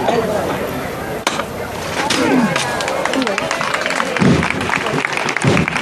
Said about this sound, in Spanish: más que merecido el, aplauso la levantada porque se ha ejecutado con toda la fuerza.